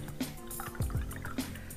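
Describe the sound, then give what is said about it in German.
Agave syrup is poured into a glass, with a few short gurgling glugs and light splashes over a couple of seconds, no voices. “Agavendicksaft wieder in meinem Glas.”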